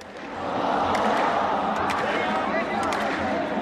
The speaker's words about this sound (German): Das König Fahd Stadion in Riad. Mehr als 50.000 Zuschauer wollen das Stadtderby zwischen Al-Hilal und Al-Nasser sehen. Die große Mehrheit ist kaum älter als 30. Die Fans klatschen, hüpfen, entzünden Leuchtraketen.